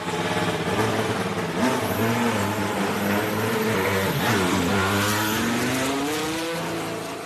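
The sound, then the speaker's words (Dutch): A Honda Formula 1 racing engine revs loudly and steadily, its harmonic whine rising and dipping in pitch as the throttle changes, continuous with no voices, easing off slightly at the end. “Ja, we hebben wel het eerste geluid van die Honda ah, Laten we even luisteren.”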